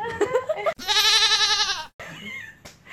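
A rubber gym ball squeaks under the weight of someone lying on it in one long, loud, wavering squeal that sounds almost like a bleat. Brief voice or laughter sounds come just before and after.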